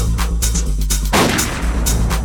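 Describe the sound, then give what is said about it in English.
Gunshot sound effects used as a DJ drop: a string of loud, sharp bangs over a thumping, bass-heavy beat, with one bigger blast near the middle that briefly swamps the music. “I wanted to shoot it up.”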